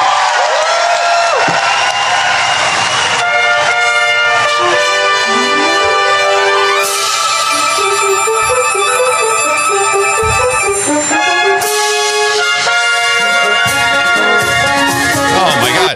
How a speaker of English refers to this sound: It's a mashup of America the Beautiful and Yankee Doodle Went to Town. Yeah, exactly. And it sounds like something you'd hear on the Rocky Bullwinkle or show. from Disney. It's a Disney uh, production.